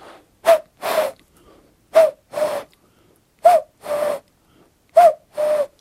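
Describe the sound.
A person imitates a common cuckoo's call, whistling four two-note "cuck-oo" pairs in a steady rhythm: a short higher note, then a longer lower one, with brief pauses between pairs.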